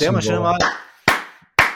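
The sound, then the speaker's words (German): A brief stretch of speech, then two sharp, loud hand claps about half a second apart, each snapping on and ringing out briefly. “darf man auch mal klatschen, sag ich.”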